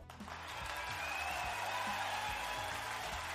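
A dense, steady burst of applause, many hands clapping continuously for a few seconds at an even loudness, with a low musical bed faintly underneath and no one speaking.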